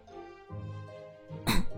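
A low, voiced throat sound hums briefly, then a single short, harsh cough bursts out near the end, noticeably louder than what came before.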